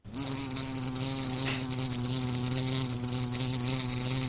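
A housefly buzzes continuously, a steady droning hum with slight wavering in pitch and loudness, with no other sounds around it.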